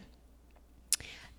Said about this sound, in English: Sorry, you guys, if you hear my dog chewing on his food in the background. I, I cannot reach him, he is too far.